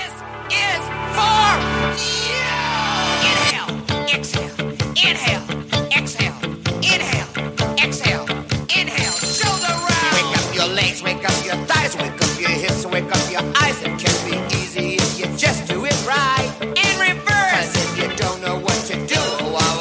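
An upbeat, driving dance-pop track with a steady pounding beat and a loud, energetic voice shouting and half-singing over it, the music starting after a brief sustained intro.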